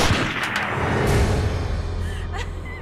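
A gunshot fired at point-blank range: sharp, loud cracks burst over a thick, continuous roar of noise, with another hard crack near the end as the rumble stays heavy throughout.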